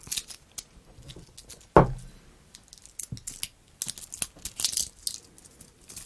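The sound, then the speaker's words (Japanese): Metallic clinks and rattling as the metal band of an old Casio watch is handled, with one sharp louder click near the start followed by irregular small jingles and scraping. “例えばこのね、これはね、だいぶ古い、えー、時計です。メタル、メタルバンドの時計ですね。”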